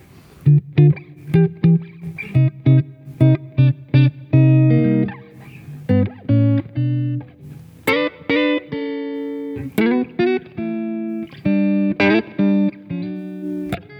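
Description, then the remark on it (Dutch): An electric guitar plays through effects, a run of short, rhythmic plucked notes and chords with rich harmonic overtones and a slightly gritty, processed tone, loud and steady with no voices. “Dus dat, dat zijn wel, wel een fijne gitaren die zij maken.”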